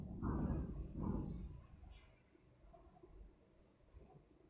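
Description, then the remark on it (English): A deep, low rumble of thunder far ahead rolls in two heavy swells as a storm approaches, then fades into a quieter, grumbling tail. No voices are heard. “What was that? Just thunder, thunder far ahead. A storm is coming.”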